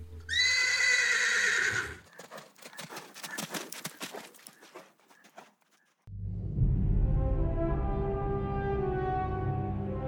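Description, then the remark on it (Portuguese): A horse named Silver lets out a loud, shrill whinny, then a quick run of clip-clopping hoofbeats that fade away, followed by a sustained, deep droning sound. “É lógico que o meu cavalo se chama Silver.”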